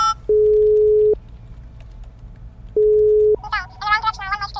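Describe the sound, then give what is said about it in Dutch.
Two steady electronic telephone tones ring out as a call is placed to the mayor of Waps, a long beep then a shorter one after a pause, like a line ringing, followed by a voice beginning to speak. “Maar goed, ik bel even de burgemeester.”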